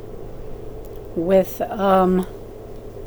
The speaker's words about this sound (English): I apologize for any background noise I have a little space heater going.